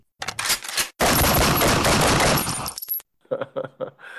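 A short crackle of shots, then a loud, sustained burst of rapid automatic gunfire lasting about two seconds, harsh, used as a sound effect, before a voice briefly begins talking.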